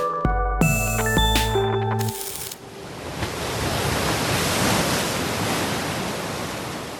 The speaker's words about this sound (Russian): Этот звук прибоя записан в уникальном месте – залив Делавар в Нью-Джерси, в США. Здесь каждый год выползают на берег тысячи мечехвостов.